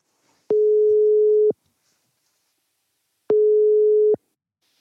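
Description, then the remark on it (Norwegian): A telephone ringback tone heard while a Bergens Tidende reporter places a call to a lecturer at the Institute of Health and Care Sciences, Høgskulen på Vestlandet: two steady, mid-pitched beeps about a second long, separated by a pause, clear and alone with no voices. “Vi tar og ringer til”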